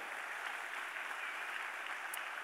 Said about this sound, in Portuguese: Você pode dar uma salva de palmas a Deus por essa graça.